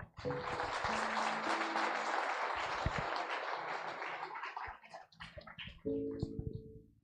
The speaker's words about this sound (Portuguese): Aplauda o Senhor.